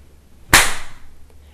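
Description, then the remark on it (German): A single loud, sharp slap cracks out, a hard hand strike across a man's left cheek, with a brief bright ring that fades quickly into quiet. No voices are heard. “Eine schallende Ohrfeige traf seine linke Wange, und eine Träne kullerte daran herunter und hinterließ eine wohlige Rotfärbung, als er sich in den Stuhl sinken ließ.”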